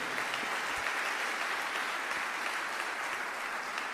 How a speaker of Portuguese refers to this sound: Amém, queridos? Quer aplaudir, pode aplaudir, porque Ele é bom.